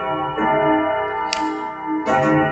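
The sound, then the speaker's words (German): A clock striking ten o'clock: resonant chimes ring out about once every second, three strokes audible, each hit layering over the still-ringing hum of the previous one. Loud and unaccompanied by talk. “Von dem her, unsere wunderbare Uhr schält gerade.”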